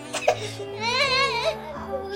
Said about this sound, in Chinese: 宝宝哭了，我都没及时哄。